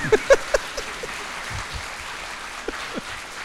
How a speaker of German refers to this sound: Ja, also großer Applaus für den Mann, der ja. heute hinter dem Tonpult sitzt.